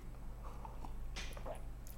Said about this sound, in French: Je reprends juste, hop, une petite gorgée de café.